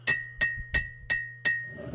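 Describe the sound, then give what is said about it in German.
Five bright glass clinks in a steady, even rhythm, each a sharp ringing tap with a short shimmering decay, like a spoon tapped against a glass to call for a toast; no one speaks. “Ich möchte an dieser Stelle einen Toast komplett brotfrei aussprechen.”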